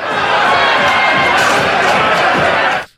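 A loud, dense crowd outside a swearing-in of deputies shouting and clamoring together, calling them traitors and telling them to leave, many overlapping voices forming a continuous roar that holds steady for about three seconds before cutting off abruptly.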